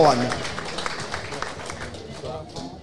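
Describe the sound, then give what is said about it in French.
An audience at a live public recording breaks into steady applause for the director general of the Chorale de Rouen basketball club, a dense crackle of many hands clapping that holds throughout, with a brief voice at the start and faint voices mixed into the clapping. “Applaudissements s'il vous plaît pour Bertrand Rodamel, le directeur général de la chorale de”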